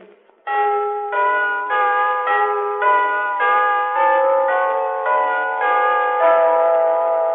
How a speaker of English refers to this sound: And when he got to Highgate, he heard Bow Bells ring.